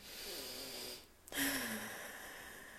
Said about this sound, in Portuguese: Respira profundamente.